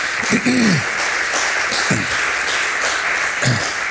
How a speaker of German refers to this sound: Hey, vielen Dank euch, ihr dürft schon mal nach vorne kommen und wir geben euch auch mal einen Applaus, dass ihr eingesprungen seid.